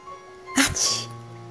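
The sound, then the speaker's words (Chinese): A single sneeze from someone ill with a fever: a sharp, breathy burst that quickly trails off into a hissing exhale, heard over a faint, steady background hum. “平虚弱的声音里伴着几声喷嚏”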